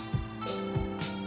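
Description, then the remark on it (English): A steady mechanical hum with a droning tonal whine from a dehumidifier just turned back on in a room, drawing moisture out, broken by two brief airy whooshes and a few low thumps. “That was that was the dehumidifier.”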